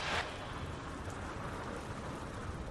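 Heavy rain pours down around seven in the morning at the steps of a bank, growing heavier, in a dense, steady hiss that fills the whole scene, with a brief louder rush at the very start and no voices.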